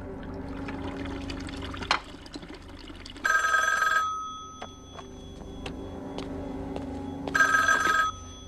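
A telephone rings twice in short trilling bursts about four seconds apart, clear, over a steady background of running, trickling water.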